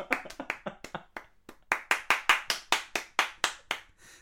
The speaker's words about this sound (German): Das geht dann so direkt in Applaus über.